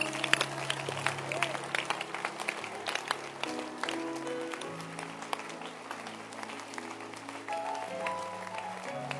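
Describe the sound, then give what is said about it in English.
An audience at a church service claps their hands in a quick, steady rhythm, with sustained singing voices running underneath throughout, at a fairly even moderate loudness. “Clap your hands.”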